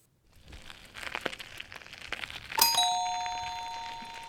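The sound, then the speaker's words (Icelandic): Bicycle wheels crunch and rattle steadily over gravel for about two seconds, then a bright, high bell dings once and its ringing tone slowly fades away. “Þannig að hérna eru hjól að rúla í möllinni.”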